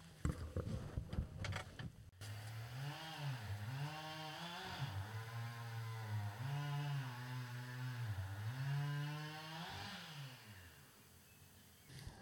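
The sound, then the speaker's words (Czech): After a couple of seconds of thumping and rustling, a chainsaw drones steadily for about ten seconds, its pitch repeatedly sagging and recovering as men cut through wood outdoors, having been cutting for a quarter of an hour. “tady prostě nikdo nechodí, tady nikdo nejezdí a snad ta motorovka nebude moc slyšet”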